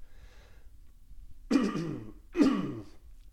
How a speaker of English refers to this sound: so sorry voice is getting a bit raspy here just dealing with little bit of a, a lingering cough.